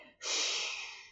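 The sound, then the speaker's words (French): A voice imitates a hot ember hissing in water: one sustained, breathy hiss that starts abruptly, holds steady for about a second, then slowly fades, heard alone. “c'est un peu comme, euh, comme un tison que tu mets dans, dans l'eau, tu sais.”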